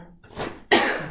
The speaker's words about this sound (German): Jetzt muss ich gleich niesen. Uh, uh, uh. Ich habe hier Taschentücher.